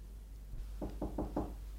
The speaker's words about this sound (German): Zwei Tage später klopfte es an unsere Tür.